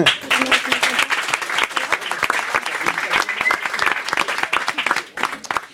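An audience applauds steadily for several seconds, a dense wash of many hands clapping at once, fairly loud and continuous, thinning slightly toward the end.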